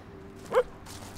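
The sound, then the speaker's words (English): A single short bark from Jess, a border collie, rings out over a steady outdoor background hiss, moderately loud, with nothing else following it; on a walk in wooded outskirts of Dublin where the city meets the mountains. “She's a border collie.”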